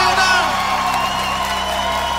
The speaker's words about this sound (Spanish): ¡Aplauso al maestro